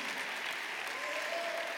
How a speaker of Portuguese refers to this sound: Cadê? Cadê? Cadê? Eu quero ouvir. Eu quero ouvir mais do que palmas, eu quero ouvir. Quero ouvir você glorificando a Deus.